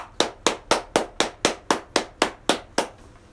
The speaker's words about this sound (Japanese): はい、ミニカホンを叩いてみた第35弾やりたいと思います。よろしくお願いします。